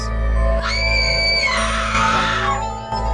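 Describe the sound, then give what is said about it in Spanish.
A loud, sustained scream of fright rises in pitch and holds for about two seconds, shrill, then cuts off abruptly. No talking is heard. “y abrimos mucho la boca para gritar, ¿no?”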